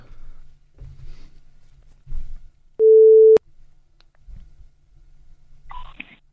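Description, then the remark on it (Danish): A single loud, steady ringback tone from an outgoing phone call to a woman sounds once for about half a second, surrounded by faint low rumbling and soft handling noises. “Lad os prøve at give hende kald og høre, hvad hun siger til det hele.”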